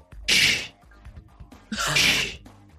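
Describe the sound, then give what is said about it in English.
Two short, breathy hissing whooshes about a second apart, like a voice imitating a Star Trek Starfleet spaceship door sliding open and then closed, fairly loud. “That door's oh, opening and closing.”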